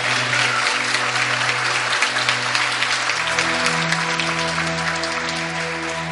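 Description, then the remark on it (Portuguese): A church audience gives a strong round of applause for the life of Jesus in a visitor's life, a steady, dense wash of clapping that lasts throughout, layered over sustained, held musical chords that shift to a new tone partway through. “Você pode dar um forte aplauso para a vida de Jesus na vida dele?”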